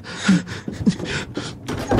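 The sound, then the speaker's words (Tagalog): A door in a house is opened: a run of rough, rattling bursts of noise with a couple of short low creaks over about two seconds, with no one talking. “Bumukas.”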